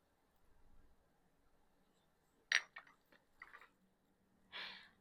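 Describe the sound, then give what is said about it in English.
Glasses clink together once in a bright, sharp toast among a group of women, followed by a few softer taps and rustles, then a brief breathy burst near the end in otherwise quiet surroundings. “Cheers, girls. Salud, mujer.”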